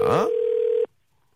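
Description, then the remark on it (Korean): A steady single-pitched telephone tone, from a call being placed to the participant listed as 7933, sounds for under a second and cuts off abruptly, with a brief burst of voices overlapping its start before silence follows. “자, 7933님한테 한번 전화 걸어보겠습니다.”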